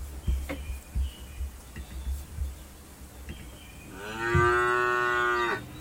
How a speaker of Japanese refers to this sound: はい、ちょっと牛で出迎えさせていただきます。